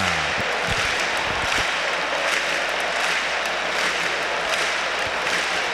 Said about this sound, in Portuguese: Torcedor fazendo a festa, né? A torcida fazendo a festa aqui na Arena.